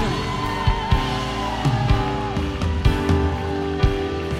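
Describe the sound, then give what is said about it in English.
A large crowd claps and cheers continuously, giving God a big hand rather than a golf clap, with occasional sharper claps and whoops rising above the steady roar, while sustained music plays underneath. “Come on, let's not give a golf hand clap. Come on, let's give God a big.”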